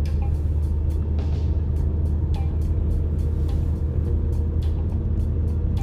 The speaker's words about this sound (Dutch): We rijden nu over de rondweg.